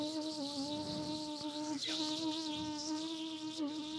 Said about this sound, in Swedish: Ja, det är myggan. Det är Fan myggan.